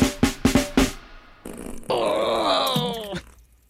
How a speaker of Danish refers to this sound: som der trykker en stor pølle yes, ud af numsen